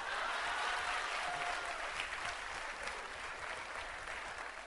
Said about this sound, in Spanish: Aplaudan ahora.